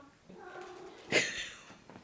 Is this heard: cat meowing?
yes